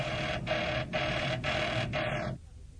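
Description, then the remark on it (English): A loud, harsh emergency warning signal in a cave, sounding because someone has entered the cave, pulses in steady bursts about every half second, a buzzing tone with a bright edge, then winds down and cuts off abruptly. No voices. “Just as the sinister Agent Q is deciding to operate, the emergency warning signal sounds and he realizes that someone has entered the cave.”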